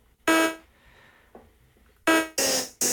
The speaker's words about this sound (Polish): na przykład O na przecięciu z literą J zrobić, mamy taki ciekawszy efekt. Moim zdaniem brzmi naprawdę to fajnie, bo to są naprawdę efekty syntetyczne i to jest naprawdę tworzenie po prostu własnych y, dźwięków syntezatora. Dosłownie.